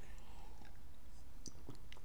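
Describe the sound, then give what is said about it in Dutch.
Someone takes a quiet sip of water, with faint wet mouth clicks and a soft swallow against low background hiss, and no talking. “Sorry, een slokje water.”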